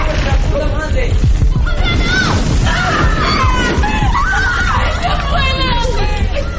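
Several maids scream in fright as another bomb falls, their high shrill cries overlapping and wavering loudly, sustained over a constant rumble of background noise.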